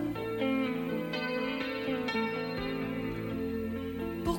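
A French pop song intro plays steadily, with layered sustained keyboard chords and a low bass line at an even, moderate volume, without any voices.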